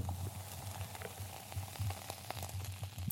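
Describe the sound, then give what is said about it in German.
Milk crackles and fizzes steadily, a dense patter of tiny pops and clicks, like a faint sizzle, with no voices. “Hör mal die Milch.”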